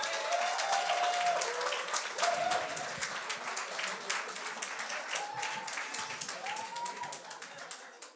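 Sustained applause from a sizable audience, a dense, steady patter of many hands clapping across the whole stretch, with a few voices whooping or cheering above it.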